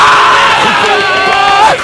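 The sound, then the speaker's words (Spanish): A loud crowd cheers and claps, with whoops and shouting voices rising over a steady wash of applause that carries on without a break for about two seconds. “¡Aplausos!”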